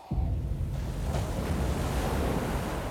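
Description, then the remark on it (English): Waves of Lake Erie wash steadily against a thin rocky beach, a continuous rushing surf with a low rumble and some wind buffeting the microphone, fairly loud. “Sharon walked along the thin rocky beach at the edges of Lake Erie”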